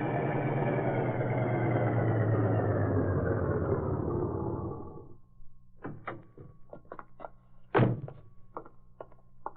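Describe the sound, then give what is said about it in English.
A loud car engine rumbles and fades out, followed by a series of small clicks, a solid thunk as a door opens, and a few scattered rattles. No one speaks. “I was just about to open the door when you came in.”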